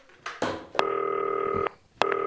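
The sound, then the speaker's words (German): The keypad of a green telephone being dialed to place a call: a brief clatter of handling, then a long steady two-tone beep, a short pause, and another beep starting. Clear, with no talking. “Grünes Telefon, ruft Nils Pedersen an.”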